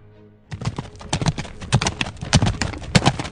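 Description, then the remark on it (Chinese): Horse hooves of an approaching cavalryman clip-clop in a quick, steady rhythm of sharp knocks that grow slightly louder over a few seconds, on the Gobi desert at dusk, after a brief low hum at the start. No one speaks. “传来一只火鸟的脚步声，一名骑兵迎面而来。”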